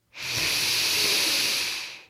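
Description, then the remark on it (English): A long, steady breath pushed out through the mouth during a breathing exercise, with the belly button pulled toward the spine: a soft airy hiss lasting about two seconds at even loudness before tapering off. No one speaks. “And then, when you exhale for four seconds through your mouth, pull your belly button to your spine.”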